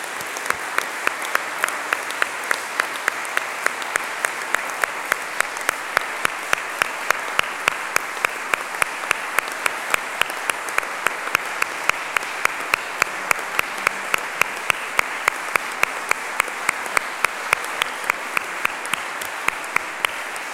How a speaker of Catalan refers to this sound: Gràcies. Us anava a demanar que féssim un fort aplaudiment per ells i ha sortit de, de vosaltres.